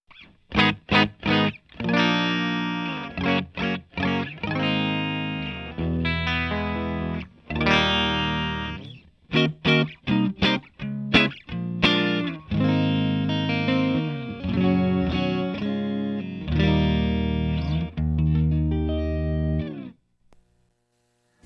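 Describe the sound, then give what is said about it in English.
Electric guitar played through an amp with a clean, dry tone and no effects, recorded straight into Zoom with no post production, alternating sharp strummed chord stabs with sustained ringing chords, moderately loud, with no voices. “So here's our, our dry signal.”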